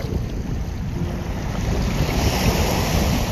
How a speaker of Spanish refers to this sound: Quisiera que escucharas este sonido allá donde estás con tus ojos cerrados. Quisiera pedirte desde el corazón que empezaras a escuchar las olas del mar. Imagina esa agua fresca tocando tus pies.